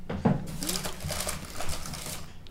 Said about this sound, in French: Voilà, désolé pour le bruit de la poche en plastique.